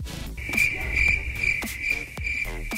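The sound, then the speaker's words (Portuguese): Crickets chirp in a steady, high-pitched trill that runs almost without a break, clear. Occasional soft clicks and thuds sit underneath, and no one speaks. “Cri, cri, cri, cri.”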